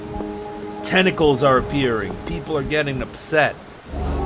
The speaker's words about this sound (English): It's raining.